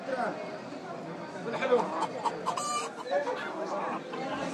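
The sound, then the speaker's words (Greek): Chickens cluck and chatter continuously at a crowded, busy market stall where customers pick a live chicken that is taken inside and handed back prepared, with voices of people talking mixed in around them at moderate volume. “Εδώ επιλέγεις ποια κότα θέλεις, λες αυτήν την παίρνουν μέσα και στην παραδίδουν έτοιμη.”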